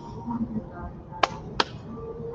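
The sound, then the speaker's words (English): Two sharp hand slaps of a high five ring out, about a third of a second apart, over a low murmur of background voices. “we get a high five in person.”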